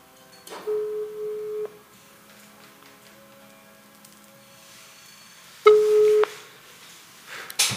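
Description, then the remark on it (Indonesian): An outgoing telephone call's ringback tone sounds twice, each a steady electronic tone lasting about a second with a long silent gap between, with no talking. “Yang akan turut membagikan cerita horornya melalui telepon.”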